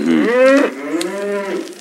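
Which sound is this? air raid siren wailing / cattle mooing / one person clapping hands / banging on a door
cattle mooing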